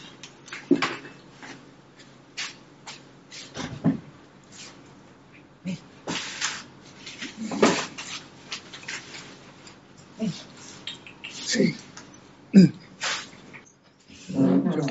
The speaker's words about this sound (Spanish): Y acá toca abrir la puerta porque mi perra me escuchó ahora que subí el audio y me está arrancando la puerta acá.